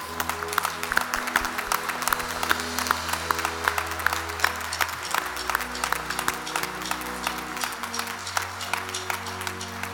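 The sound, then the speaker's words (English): A church audience stands and applauds God, the creator of the heavens and the earth, steadily for the full stretch, dense clapping over sustained low organ or keyboard chords that shift partway through. “And if you recall, the kind of the new tradition I'd like to do is when God does something great and fantastic like this, we stand and we applaud the creator of the heavens and the earth.”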